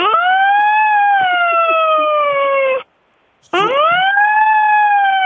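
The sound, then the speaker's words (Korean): A child's voice imitates a fire alarm siren with two loud, sustained wails: a long tone that slowly slides downward, a brief breath, then a second wail that sweeps up and holds. “한번 화재 경보 기술 내봐요.”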